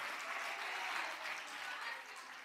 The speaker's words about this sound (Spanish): Un fuerte aplauso para el Rey de Gloria. Alabado sea el Señor.